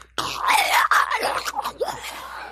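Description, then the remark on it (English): A person's voice lets out a strained, wavering screech with rasping, breathy edges, imitating a demon crying out while reading aloud the Bible passage of the demons crying out to Jesus. It's loud, lasts about two seconds, and rises and falls in pitch before breaking off. “And there was a little probably screech in there.”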